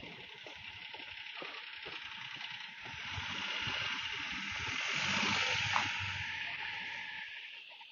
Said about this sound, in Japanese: こう25秒開けた間に車が通りましたけど、車は無音にカウントされるんでしょうかね。